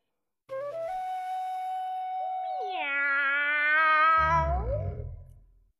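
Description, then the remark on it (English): A single long, drawn-out meow, loud, holding a steady pitch before rising into a wavering cry and ending in a rough, growly tail. No talking. “The vet reached deep down inside of George and put out a cat.”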